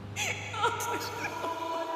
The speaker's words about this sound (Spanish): También percibe un llanto que se escucha a lo lejos.